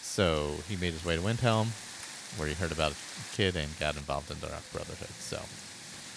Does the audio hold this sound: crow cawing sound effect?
no